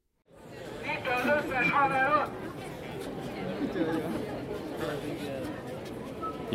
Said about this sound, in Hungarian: A következő percekben a 2022. október 23-án tartott diáktüntetés mozzanatait hallhatjátok. A felvétel célja, hogy a megmozdulás történéseiről és hangulatáról képet fessen.